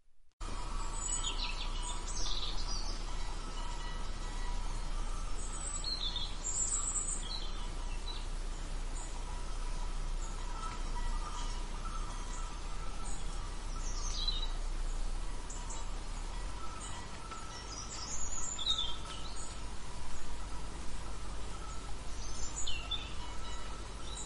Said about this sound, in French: Les oiseaux gazouillaient et les branches craquaient sous leurs pas, tandis qu'ils progressaient entre les arbres centenaires.